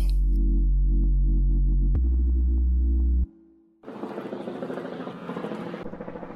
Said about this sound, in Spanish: Y nada, yo iba caminando por la calle pasó un helicóptero y pensé, ¿hace cuánto que no oigo un helicóptero en un podcast?